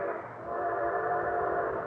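A train horn blares in a long, steady sustained tone as the train reaches a crossing, loud, with the low rumble of the train underneath and no voices.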